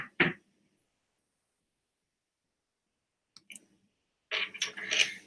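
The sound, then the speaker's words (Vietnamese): A sharp click of a wireless computer mouse whose battery has run out, then silence, a couple of faint clicks, and a short burst of scratchy handling noise at the end. No one speaks. “ôi hết pin rồi bác sĩ đang xài con chuột wifi mà bây giờ nó hết pin không thấy câu hỏi luôn mọi người ơi con chuột nó hết pin”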